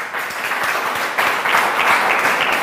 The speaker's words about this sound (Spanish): déle un aplauso más, por favor.